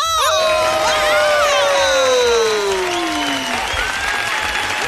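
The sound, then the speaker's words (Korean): A large crowd cheers and applauds loudly and continuously, dense clapping mixed with high whoops and shouts that rise at the start and slowly taper, filling the whole stretch without any talking. “반갑다면 모두 소리 질러!”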